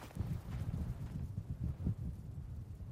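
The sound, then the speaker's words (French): Slow, muffled hoofbeats of a horse carrying a rider clip-clop at a steady plodding pace as it advances very slowly in the distance, fairly faint and low, with a soft rush of dry wind underneath, on a stony path in open countryside on the Nicoya peninsula on a hot, sunny day. “Et tout à coup, j'aperçois au loin comme un cow-boy, un homme à cheval qui avance, mais qui avance très lentement.”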